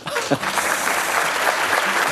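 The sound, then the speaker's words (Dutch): A burst of audience applause, dense and steady clapping from many hands filling the whole clip at a strong, even level. “En er mag een applaus komen.”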